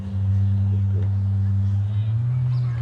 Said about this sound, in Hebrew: הרעשים שאתם שומעים פה, זה בגלל שהחבר'ה פתחו את הסירות. תראו איזה יופי.